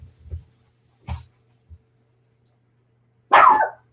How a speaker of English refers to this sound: Oh my gosh, stop barking. One second.